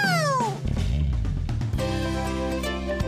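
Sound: cat meowing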